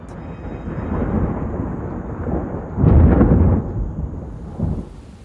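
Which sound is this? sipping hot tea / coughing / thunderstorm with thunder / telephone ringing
thunderstorm with thunder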